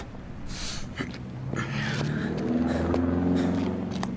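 A chauffeur-driven limousine's engine rumbles as it pulls up, its low hum growing steadily louder over a few seconds, with faint clicks and shuffles in the background and no talking.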